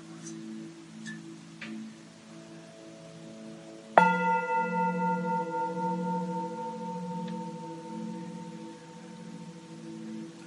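A meditation gong is struck once to begin a guided breathing meditation, its bright metallic tone blooming and then ringing on in a long, slowly fading shimmer, with no one speaking and only a faint hum beforehand.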